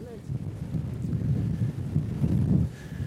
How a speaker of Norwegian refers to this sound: Den blåste voldsomt her ute akkurat nå.